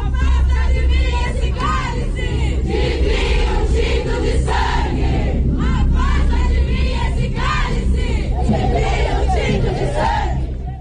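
protest crowd chanting slogans

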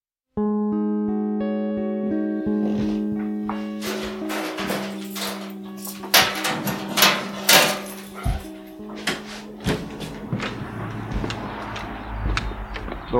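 footsteps walking on gravel

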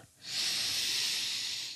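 smacking lips

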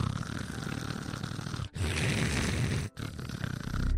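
snoring

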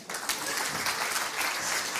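audience applause

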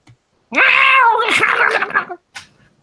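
cat meowing

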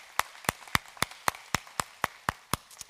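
audience clapping

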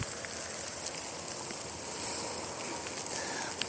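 rain falling

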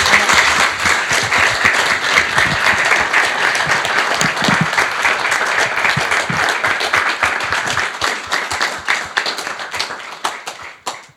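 audience round of applause

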